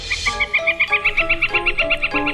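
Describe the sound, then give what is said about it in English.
A northern flicker calling a rapid, steady series of loud, ringing notes, roughly sixteen in quick succession, each a bright, fairly high-pitched 'kek' repeated with no voices present. “Today's Talking Birds featured feathered friend, the northern flicker.”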